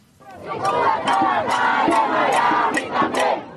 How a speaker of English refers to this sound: There have been demonstrations across Miami, but the main ones have been outside the city's most storied Cuban restaurant, Café Versailles. Each night, hundreds of people have come to wave Cuban flags and chant Libertad, freedom.